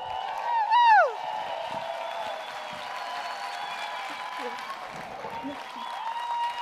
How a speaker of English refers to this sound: Give her a big round of applause, everyone.